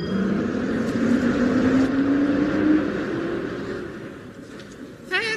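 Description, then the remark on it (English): A bus engine rumbles loudly and steadily, its droning pitch climbing as it accelerates before easing off into a lower idle, with a brief voice-like sound right at the end. “Just get on this bus.”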